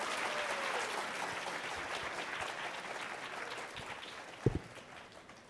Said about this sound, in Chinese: 我们的执事们，我们一起掌声欢迎我们的执事们。